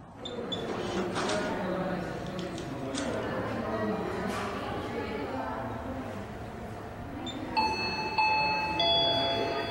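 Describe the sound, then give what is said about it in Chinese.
A bank's queue-number call chime sounds near the end, a bright electronic ding-dong of ringing, sustained tones rising clearly above a steady murmur of many indistinct voices of customers waiting in the bank hall for their numbers to be called before going to the counter to collect money. “呃，我这一段是在民众到银行取号码牌，在大厅等候叫号声，嗯，然后叫号灯响后前往柜台领款点钞机的声音。”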